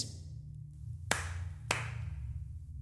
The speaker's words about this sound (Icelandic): Tvö klöpp heyrast sem þýtti nei.